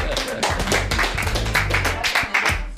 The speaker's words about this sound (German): Oh, ihr Jubel hier.